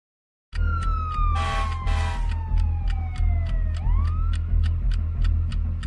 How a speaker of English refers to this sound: I hate sirens.